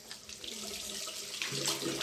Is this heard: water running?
yes